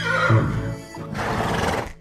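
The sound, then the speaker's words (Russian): A large red horse whinnies loudly, a shaky rising neigh that breaks into a second quavering burst, lasting about two seconds with no talking. “Вдруг Арчи стал расти и изменяться, и из кота превратился в крупного рыжего коня.”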